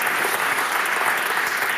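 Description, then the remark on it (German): Steady audience applause, a dense continuous patter of many hands clapping at an even loudness throughout, with no voices standing out. “Deine, deine letzten Worte sind im Applaus untergegangen, zumindest bei mir.”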